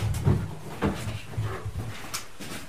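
A chair is carried in and set down, with a series of wooden knocks, thumps and brief scraping shuffles over a few seconds, no voices.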